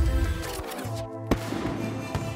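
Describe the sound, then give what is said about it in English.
Fireworks burst in the night sky in a dense, noisy wash, with one sharp, loud crack standing out midway through the rumbling bangs and crackle, as Max Verstappen becomes Formula One world champion. “As the fireworks explode in the night sky around you, the realization.”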